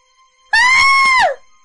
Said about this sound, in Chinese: 一声尖叫划破了黎明